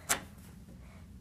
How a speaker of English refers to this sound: Sorry, that was my dog at my door.